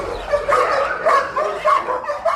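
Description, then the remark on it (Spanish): A dog named Barbas, beside a greyhound, barks a welcome from a distance in a quick, steady series of five or six excited, yappy barks, clear, with no voices present. “De lejos, precisamente al lado de un galgo, nos estaba haciendo su particular fiesta de bienvenida, Barbas.”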